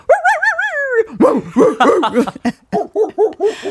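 A pet dog makes a wavering, drawn-out whine, then breaks into a quick run of short, high yapping barks, loud, with no one talking over it.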